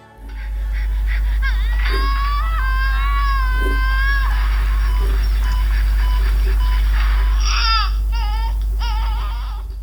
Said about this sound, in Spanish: Acabas de escuchar un parto ficticio y estereotipado.